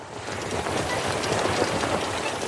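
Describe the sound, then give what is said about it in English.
A steady, loud rushing rumble of Skiff, a railboat with wheels, sailing through water, continuous, with a faint rhythmic clatter under the wash and no voices. “As Skiff sails through the water, he sounds like this.”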